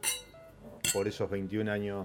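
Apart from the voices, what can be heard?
wine glasses clinking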